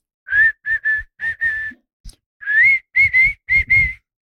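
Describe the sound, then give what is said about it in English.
A person whistles a short, clear melody, the whistle from the TV show The Wire that the closer Bautista comes out to: a phrase of about five notes, a brief pause, then four more sustained, slightly rising notes, with no talking. “Yeah, the whistle. So the fucking whistle.”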